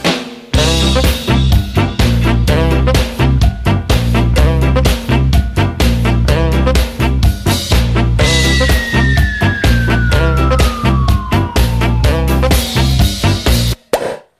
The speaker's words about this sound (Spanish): Bueno, la sintonía que indica que vamos a disfrutar de buena música en los próximos minutos, que vamos a descubrir artistas que se merecen un hueco en la industria musical